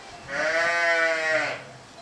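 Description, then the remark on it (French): A Tarasconnaise ewe from a farm flock of about 450 grazing ewes lets out one long, quavering bleat lasting just over a second, clear, with a faint outdoor hush around it and no one talking. “On a aussi un gros troupeau de brebis.”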